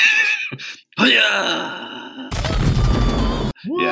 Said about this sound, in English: that is an awesome death scream. Yeah. All right, but they cut it short. You yeah. only get like half of it there.